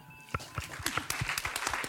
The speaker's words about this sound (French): Merci à vous tous, parce que sans vous, on ne serait pas là aujourd'hui. Hein. donc, euh, c'est vraiment cool. Donc, vous pouvez vous applaudir.